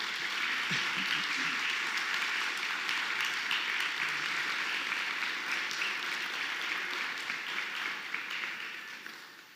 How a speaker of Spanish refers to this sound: Dale una ovación a Jesús, gracias.